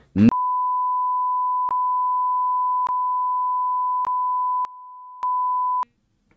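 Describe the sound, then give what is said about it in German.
A long, steady censor bleep over swearing holds one pitch for over five seconds, broken only by faint clicks where segments join; it is loud and stands alone with no audible speech. “Das ist halt wirklich so, das möchte ich halt alles rauspiepen, ne?”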